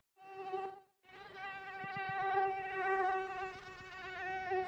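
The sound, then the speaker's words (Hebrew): A horsefly buzzes steadily, a sustained droning whine that cuts out briefly near the start, then resumes and holds for several seconds with slight wavering in pitch. “אתם לא שומעים סתם יתוש. לא שיש סתם יתושים, אבל זה, זה זבוב הסוסים.”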